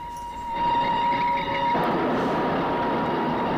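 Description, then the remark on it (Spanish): A steam locomotive train approaches to within 50 meters and passes with a loud, steady rumble. A sustained whistle-like tone rings over it for the first half, then gives way to a dense, hissing roar. No voices. “Una formación se acerca a 50 metros, pero tras la columna de vapor de la locomotora,”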